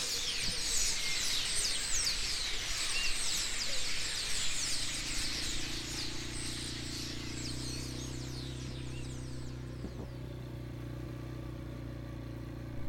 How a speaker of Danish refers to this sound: Det her træ er øh, byens fugletræ, og det er ikke falske lyde, det her. Det er simpelthen et træ, der er fuldstændig proppet med fugle.